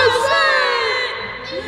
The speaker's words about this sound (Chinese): 因为士兵们在高呼万岁的时候要高高的举起枪，所以水牛部队也高声喊着：“ 伊古诺王万岁！伊古诺王万岁！ 伊古诺王万岁！” 结果满山遍野都喊起了“国王万岁”，声音很洪亮。震动了天地，充满了傍晚的天空。